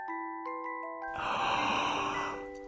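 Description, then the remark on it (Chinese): A voice imitates Mother Bear's yawn in a children's bedtime story: one long, breathy, drawn-out exhale lasting over a second, rising then fading, with steady soft sustained tones playing underneath. “熊妈妈打了一个哈欠”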